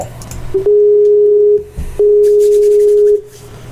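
A Skype call connecting tone: two long, steady electronic beeps separated by a brief pause, loud and clear with no one talking.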